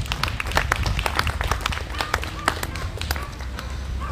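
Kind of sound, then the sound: crowd, audience applause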